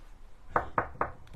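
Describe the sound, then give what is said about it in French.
Three quick knocks on a door, evenly spaced and fairly loud, with a fainter fourth tap trailing after; no talking. “tape à la porte.”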